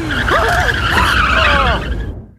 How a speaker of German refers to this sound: Ich erschrecke mich und steige voll in die Eisen. Quietschend kommen wir zum Stehen.